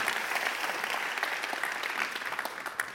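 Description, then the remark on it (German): A crowd claps steadily throughout, a dense patter of many hands with small sharp peaks, loud, with no talking heard over it. “3, 2, 1, Applaus”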